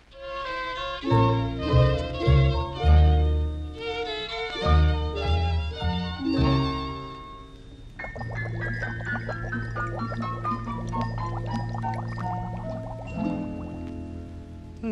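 Playful children's song about a trickling stream, starting with bouncy, dripping-like notes in a lively rhythm, then shifting to a smoother, sustained passage with a steady pulse underneath. No one speaks.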